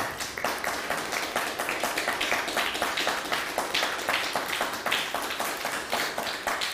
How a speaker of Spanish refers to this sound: Pues sean todos bienvenidos, un fuerte aplauso por favor, fuerte que se escuchen.